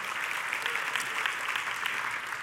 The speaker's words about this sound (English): The first value I consider when I vote is sanctity of human life. Sanctity of human life. Uh, you can clap at that if you'd like.